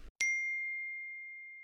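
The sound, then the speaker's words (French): A single bright phone notification ding rings out clearly and sustains with a long, slowly fading tone, preceded by a brief low rustle. “On va prendre les notifications.”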